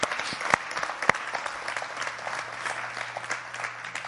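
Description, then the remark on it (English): An audience bursts into steady applause, giving the Lord a hand clap after a prayer. Many hands clap in a dense, continuous patter, with a couple of sharper, louder claps standing out early on and a faint low hum underneath. “Will you give the Lord a hand clap?”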